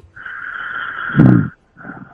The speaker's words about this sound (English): So, oh, the snoring has changed.